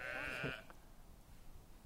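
A single Pomeranian landrace sheep bleats once on a litter meadow behind a village, a wavering, nasal call lasting about half a second, then fades into quiet outdoor background noise.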